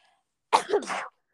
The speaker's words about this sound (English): I really have to sneeze.